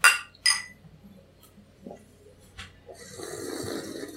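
Two bright glass clinks ring out close together at the start as glasses are raised in a toast, followed by a few softer taps and then a rustling, slurping noise as a bitter drink is sipped.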